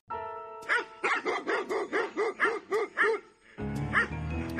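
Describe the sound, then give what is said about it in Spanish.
A small female dog barks about nine times in a quick, steady run of sharp, high yaps, loud, followed by a drawn-out whiny tone at the end. “les paso a la perra de Katrina. O sea, la perra tienes una perrita, ¿verdad?”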